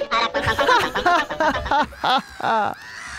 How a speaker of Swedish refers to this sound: Och här kommer veckans fågel. Tjo vad det var livat i holken i lördags. Skrattmås.